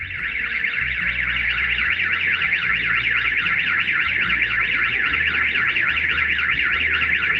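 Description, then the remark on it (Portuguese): A loud electronic car alarm at a home wails without pause, its pitch sweeping rapidly up and down in a steady warble, filling the whole recording, with a low rumble underneath and no voices. “E começou o alarme aqui em casa, eu já comecei a me irritar.”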